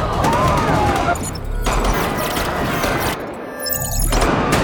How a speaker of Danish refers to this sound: Der er virkelig mange, der bliver skudt her. Altså et, et blodbad, kan man sige.